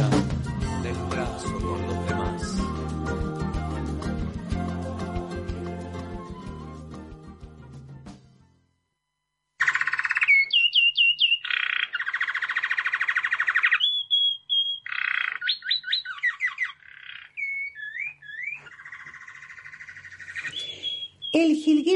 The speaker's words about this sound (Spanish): dorado que estamos escuchando es una de las aves más conocidas de la Argentina, a tal punto que es difícil salir al campo y no verlo.